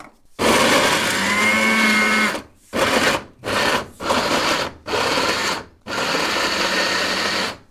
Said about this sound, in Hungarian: Meddig kell turmixolni? Hát, hogy darabok ne legyenek már benne. Öntött hozzá egy kis vizet, de végül is egy ilyen egész sűrű pép alakult ki. Igen, egész sűrű lett.